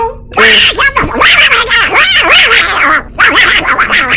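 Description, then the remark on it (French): A duck quacks loudly and rapidly, a dense run of nasal, raspy calls with only brief pauses, and no talking. “Depuis quand les canards, ça détecte l'or et les pierres précieuses”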